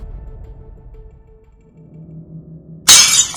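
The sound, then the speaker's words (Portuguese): A low, steady drone with faint tones hums for a few seconds, then glass abruptly cracks and shatters in a sharp, loud burst near the end as a head strikes it violently, cracking it like a spider web. “Minha cabeça bateu violentamente contra o vidro e fez achar como a teia de aranha.”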